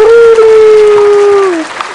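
applause

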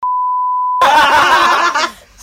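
censor bleep tone

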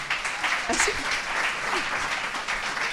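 audience applause

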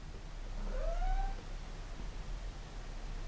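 tomcat meowing

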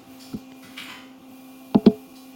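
typing on a keyboard

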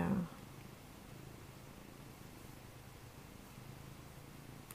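cat purring

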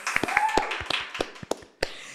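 hand clapping

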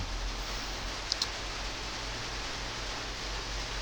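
rain falling

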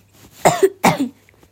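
coughing

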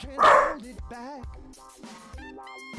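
dog barking

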